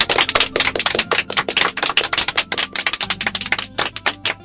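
A group applauds in a dense, rapid patter of sharp claps that holds steady and fairly loud for several seconds without letting up. No one speaks over it.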